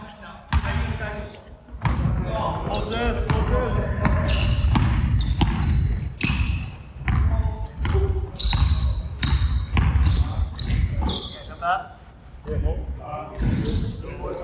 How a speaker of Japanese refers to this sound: いいですねこのバスケットシューズとボールが、まあ、キュッキュッてったりどんどんってったり実際の雰囲気のこちら本当に実際の練習の音となっておりますこんな形で、まあ、練習が行われているというところですね